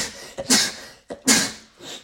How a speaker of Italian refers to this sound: Salute tre volte.